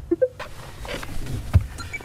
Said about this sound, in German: steigt an einem kalten, verregneten Tag ins Dörbsmobil ein, dem Carsharing-Auto im Dorf Klicksbüll.